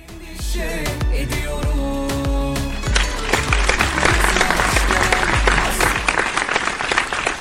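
Rhythmic music with steady beats plays briefly before audience applause swells in, a dense, loud wash of clapping that carries on to the end.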